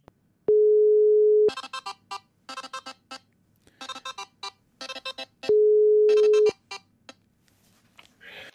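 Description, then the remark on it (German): A telephone ringback tone sounds twice while a call is being placed: a steady, fairly loud one-second beep, a pause of about four seconds, then another, with scattered crackly bursts of noise in between. “Ich rufe dich an.”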